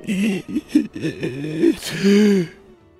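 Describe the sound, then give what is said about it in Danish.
A voice imitates the strained, ragged first breath taken after being winded by a fall onto concrete: several groaning, catching vocal pushes, then a sharp gasping inhale and a long drawn groan that fades out, fairly loud. “Det var sådan den første vejrtrækning, jeg tog efter det var sket.”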